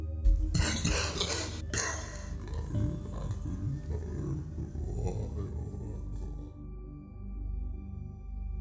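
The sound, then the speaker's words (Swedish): A man clears his throat with two rough bursts over a telephone call, then mumbles indistinctly in a low, muffled voice for several seconds before trailing off into quiet; he sounds very far away. “Jag svarar hör min pappa harkla sig och få ur sig något som låter som något mumlande.”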